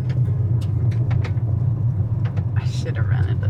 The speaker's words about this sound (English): we're on the other side of the river in Missouri, bumping down a gravel road in our rental car.